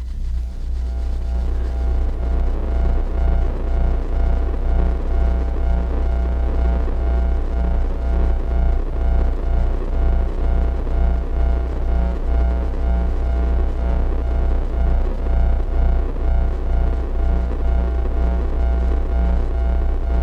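A steady, loud low hum around a deep fundamental with faint harmonic overtones and a gentle throbbing pulse, continuous and unchanging for the whole stretch, with no voices.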